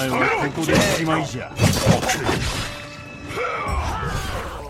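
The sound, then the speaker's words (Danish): Fight sounds from the trailer for the video game Trek to Yumi, with a lot of Japanese fighting: a flurry of loud hits, whacks and crashing impacts, bunched around the middle, with shouting voices and strained grunts layered over a busy, dense mix. “kan høre, så er det en masse øh, japanske slagsmål.”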